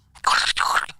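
Walkie-talkie crackle heard in a toilet: two loud bursts of harsh, hissy static, about a second in all, separated by a very brief break, with no voices.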